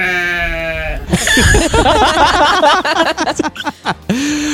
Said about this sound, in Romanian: Deci, Uite, uh, ne, ne întreabă cineva, oile sunt produse? Nu, nu, nu. Erau oi de la stână, original sound.